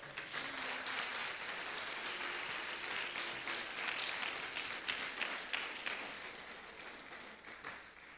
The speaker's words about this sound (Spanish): Dele palmas fuerte al rey.